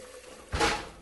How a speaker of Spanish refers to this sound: Lo primero que hay que hacer es ponerlo a remojar por dos horas, así que vertemos un poco de agua en una olla con el arroz